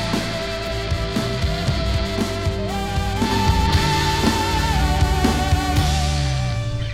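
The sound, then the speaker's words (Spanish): A song plays loud and full throughout, with a rich band backdrop, steady low bass and drums, and a wavering melodic lead line riding on top. No one talks over it. “Mientras esto sucede, música.”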